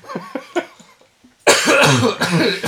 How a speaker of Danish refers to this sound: Jeg venter lige til, du har hostet ja, færdig.